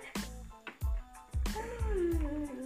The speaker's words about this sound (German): Ich hab, es gibt doch irgendeine Katze.